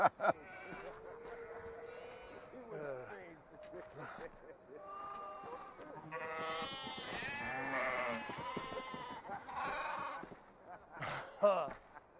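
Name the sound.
sheep bleating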